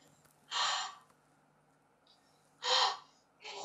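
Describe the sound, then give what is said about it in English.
Deep, forceful breaths from a person breathing deeply to confirm healing from asthma: two long airy inhales or exhales separated by a pause, then a third beginning, with no talking in between. “How, how, as you're breathing now, what, what is the difference to before?”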